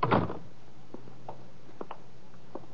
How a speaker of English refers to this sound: Uh, Come in and shut the door behind you.